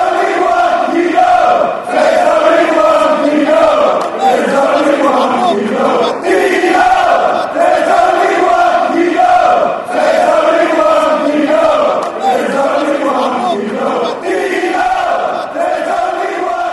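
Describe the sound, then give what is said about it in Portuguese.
A large crowd of football supporters sings the chant 'One Keano' in tribute to Roy Keane, in unison, loud and steady, its melody rising and falling in repeated rhythmic phrases for the whole stretch, with no talk over it. “E aqui a torcida homenageia o Roy Keane uh, com essa bela música aqui. Vamos ouvir?”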